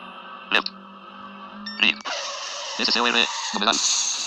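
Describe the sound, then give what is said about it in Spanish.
A steady, buzzy electronic engine drone from a racing video game played on a mobile phone in Easy Mode, shifting abruptly in tone several times, with short warbling bursts layered on top; no one speaks. “¿Se escucha el carrito?”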